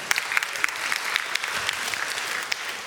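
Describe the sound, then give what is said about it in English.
A steady wash of audience applause, many hands clapping at once for a colleague in a dense, continuous patter at moderate loudness, with no voices standing out. “Give him a clap.”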